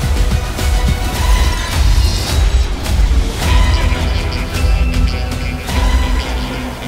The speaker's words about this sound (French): C'était la bande-annonce de The Marvels